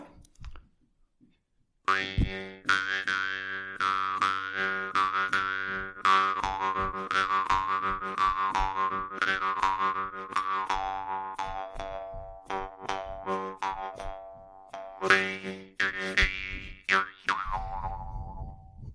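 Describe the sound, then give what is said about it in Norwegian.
A handmade jaw harp, probably brass, plays a lively tune, its twangy buzzing drone plucked in quick rhythmic strokes with shifting overtones. It starts after a brief pause and is heard alone for about sixteen seconds. “Og selve munnharpen er da, den er jo da håndsmidd. Det er vel messing.”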